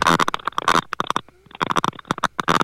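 A garbled, breaking-up phone line: choppy bursts of distorted, unintelligible sound cut in and out rapidly, with a brief near-silent gap in the middle filled by faint warbling tones.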